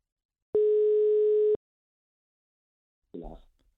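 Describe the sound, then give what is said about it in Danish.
A single one-second burst of a steady telephone ringback tone from an outgoing call to the chairman of FC Copenhagen's official fan club, followed by silence while the line rings out, then a brief voice answering at the end. “Det skal vi prøve at finde ud af, øh, og derfor ringer vi nu til”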